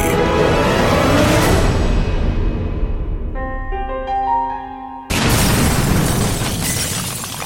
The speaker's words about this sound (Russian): Взрыв в редакции московского комсомольца – прогремел 17 октября 1994 года. Взрывная волна выбила все окна и двери на этаже, упал подвесной потолок, начался пожар.